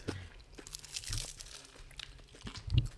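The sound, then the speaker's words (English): Crisp crunching and crackling as someone bites into a flaky pastry tart from Portugal, with brittle crinkly bursts spread over a few seconds and a louder crunch near the end. “it's got the crunch now. wow, still everyone can probably hear that.”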